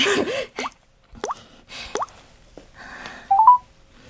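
Several quick popping, upward-chirping taps spaced irregularly, followed by a short run of clear electronic beeps stepping upward in pitch, like phone keypad tones, as someone dials a phone call. No one speaks.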